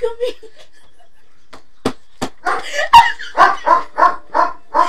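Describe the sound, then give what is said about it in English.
A dog barks repeatedly, a few sharp isolated barks followed by a quick run of rhythmic yapping barks, with a brief bit of human speech at the start. “Excuse my dog barking.”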